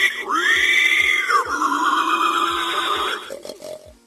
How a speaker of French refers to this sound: Grogner, c'est pousser le cri du cochon ou du sanglier.